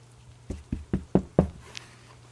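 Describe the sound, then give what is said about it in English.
Five firm, evenly spaced knocks on the door of a temple, fairly loud, over a low steady hum, followed by a brief faint squeak and quiet. “I'm going to walk to the temple and knock on the door.”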